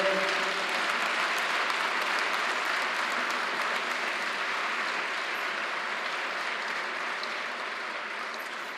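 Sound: audience applauding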